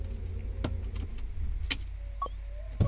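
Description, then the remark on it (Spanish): People climbing out of a car: a low idling rumble underneath, a few sharp clicks and knocks of door handles and doors, a faint jangle, and a final thud near the end. “Nos bajamos del auto.”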